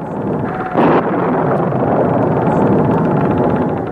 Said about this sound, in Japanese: すごい嵐だ